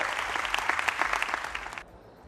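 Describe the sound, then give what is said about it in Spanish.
Loud, dense applause from many hands at a PNV party event, given as a strong applause of recognition, a steady crackle of claps that holds strong for nearly two seconds before cutting off abruptly into quiet. “un reconocimiento a Echiver con un fuerte aplauso como hemos escuchado.”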